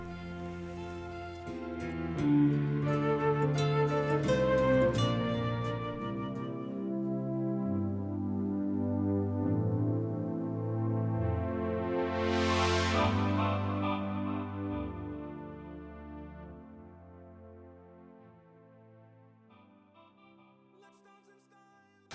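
A synth-pop song plays on its own, with sustained layered synthesizer chords over a steady bass line, a bright swelling sweep in the middle, then gradually fading out toward the end.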